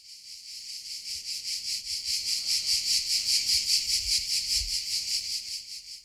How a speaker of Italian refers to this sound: Cosa sia, soprattutto, farsi piccoli in mezzo all'oro del grano e stare lì nel canto delle cicale che non smette mai.